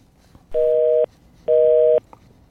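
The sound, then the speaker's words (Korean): A telephone busy tone after a call disconnects, played as the cue sound for a radio program's treasure-hunt segment: two steady, loud electronic beeps of about half a second each, separated by a matching gap, with nothing else audible. “네, 전화 끊기는 소리죠.”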